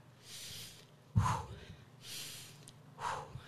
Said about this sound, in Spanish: Respiración. Meto aire por nariz y saco aire por la boca.